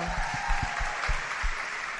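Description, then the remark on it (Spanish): An audience claps steadily together for an engaged couple among them, a dense wash of hand claps with a few sharper individual claps punctuating it, sustained at moderate loudness with no talking. “Ay, por allá, démosle un aplauso.”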